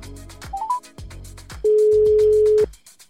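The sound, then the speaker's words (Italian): A few quick rising beeps, then a single steady telephone ringing tone lasting about a second, clear, as a call is placed to a professor, with a soft rhythmic thumping beat running underneath throughout. “Ne parliamo oggi con la professoressa e la chiamiamo al telefono.”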